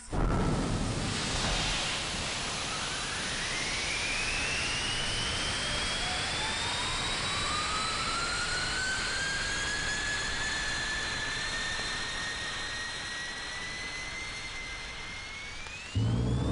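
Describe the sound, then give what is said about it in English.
A rocket engine fires after a countdown: a loud, sustained roaring blast with broad rushing noise and rising whine tones that climb and hold steady, lasting about sixteen seconds before cutting off abruptly. No voices. “Countdown. Ten seconds to firing.”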